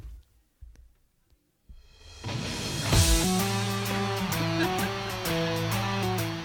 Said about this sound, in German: jetzt hören Sie mein absolutes Lieblingslied und zwar … von …